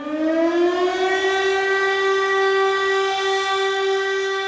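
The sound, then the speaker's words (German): A loud air raid siren in Kyiv, Ukraine, a sound schoolchildren there hear almost daily, wails steadily, its tone rising at the start and then holding a sustained, droning pitch with strong harmonics, with no voices present. “Und sie beginnt ihren Beitrag mit dem fast täglichen Geräusch, dem die Schüler und Schülerinnen in Kiew ausgesetzt sind.”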